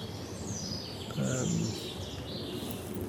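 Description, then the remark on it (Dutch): A steady, low industrial hum from the Obermarle factory drones faintly throughout, with birds chirping high overhead and a brief murmur of voice partway through, heard from a wet, clayey, marshy floodplain forest. “Dat geruststellende gezoem van de Obermarle fabriek in de achtergrond.”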